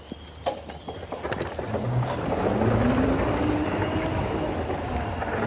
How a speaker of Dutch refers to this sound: Met een van de onbemande voertuigen mee. Dus die, eh, die gaat met ons mee op pad. Moeten we hem besturen of volgt hij ons? Nee joh, begin maar gewoon te lopen, dan gaat hij met ons mee.